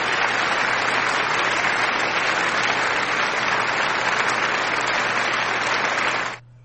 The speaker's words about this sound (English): um, let me uh, play the claps though because I'll, I'll give y'all that